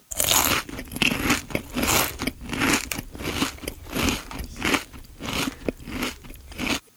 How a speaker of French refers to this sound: Mais dans la cave sombre et froide se cachait un effroyable géant. Sans s'en douter, les frères s'y aventurèrent. Et en un seul moment, ils se firent dévorer.